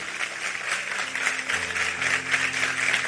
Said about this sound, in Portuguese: Vamos aplaudir a Ele, vamos embora para casa.